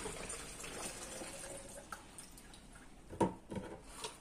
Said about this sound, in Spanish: Ahora vamos a comprobar el estado de la materia líquida en sus características de, fluidez, densidad y viscosidad. Primero le echamos el agua.